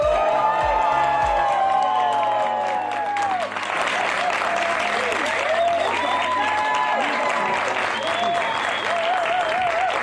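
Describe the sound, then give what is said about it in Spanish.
A large cinema audience, the Sagadictos crowd, cheers and applauds loudly and continuously in a movie theater, with whoops and shouts rising over dense clapping, while bursts of music and voices sound underneath. “escucha toda la banda de Sagadictos.”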